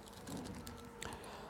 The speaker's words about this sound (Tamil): நான் பைபிளை திருப்பி கொண்டிருக்க அதுதான் அந்த சத்தம்